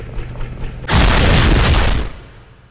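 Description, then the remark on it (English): A sudden, loud explosion of a missile striking a falling drone bursts in after a quiet hum, a broad roaring blast that rumbles heavily for about a second before fading away. No voices. “There's a massive explosion, but the bot crawls on, unscathed.”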